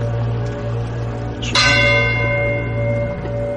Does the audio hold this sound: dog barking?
no